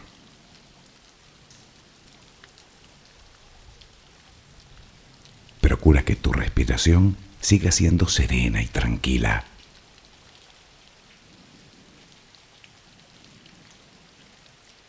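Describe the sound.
Soft, steady rain hisses evenly throughout, a constant low wash of patter with no breaks, while a calm voice speaks briefly over it in the middle.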